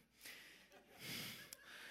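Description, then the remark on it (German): Heavy, breathy panting, a few long rasping inhales and exhales in quick succession, like someone catching their breath after exertion, with no talking. “Jetzt muss ich schnaufen.”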